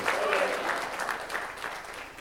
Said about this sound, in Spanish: ¿Cuántos dicen amén, hermano? Dale otro fuerte aplauso a Cristo. Y a su nombre.